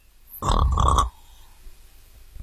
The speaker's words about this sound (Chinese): 嗯，可是睡觉的河马只管睡它的觉，打它的呼噜。